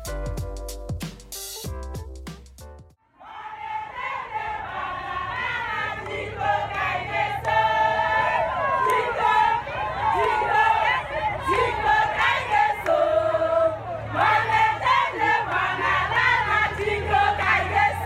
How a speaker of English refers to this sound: What you hear is the sound of women in the town of Enugu celebrating the opening of a new maternity center that GEANCO built